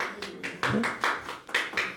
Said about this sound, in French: Bah, vous voyez, vous avez euh, quelqu'un qui applaudit, donc...